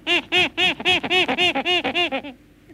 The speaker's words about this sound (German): der kleine Affe, was sagte der eben? Ja, der, der Kleine, der ist mit den anderen nicht einverstanden.